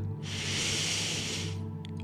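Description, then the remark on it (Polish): One long, deep inhale through the nose during a guided relaxation exercise, the first of three deep breaths, a steady airy hiss lasting over a second over a low, constant background hum, with no talking. “Weź trzy bardzo głębokie wdechy przez nos.”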